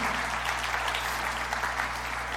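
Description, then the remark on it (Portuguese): Steady, dense applause from an audience, a continuous wash of many hands clapping at even loudness for a couple of seconds, with a low constant hum underneath and no voices. “Dá uma salva de palmas para aquilo que Deus está fazendo aí.”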